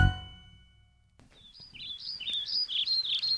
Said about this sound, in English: ah it's such a nice day you walk outside and look around. The birds are chirping, the wind is blowing ever so slightly.